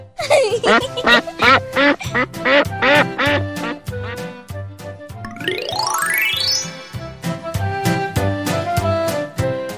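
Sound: duck quacking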